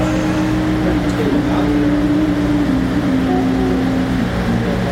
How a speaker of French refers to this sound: Bon, on s'excuse pour le bruit, euh, les ventilateurs et la musique intempestive.